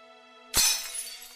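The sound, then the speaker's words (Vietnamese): Objects being smashed inside a home: a single sharp crash of glass shattering, a loud burst with bright scattering fragments that ring and tinkle briefly afterward over a faint steady hum. “Bên trong có tiếng đập đồ phát ra”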